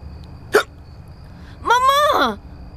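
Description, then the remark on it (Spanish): A sharp, abrupt hiccup, followed a moment later by a longer, strained voiced sound like a second hiccup with a groan, with no talking around them. “Justo ahora un ataque de hipo.”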